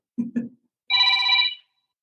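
A mobile phone rings: two short low blips, then a single bright, steady electronic ringtone burst lasting under a second, fairly loud and clear with no talking over it.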